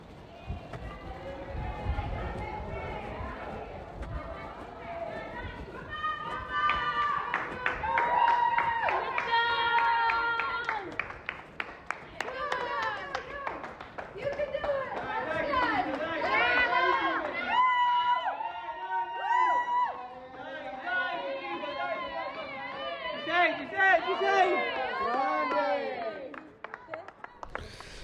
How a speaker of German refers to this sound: Aber da standen noch, als ich gefahren bin, das war schon echt kurz vor knapp gewesen, da standen noch ganz viele Leute, die angefeuert haben.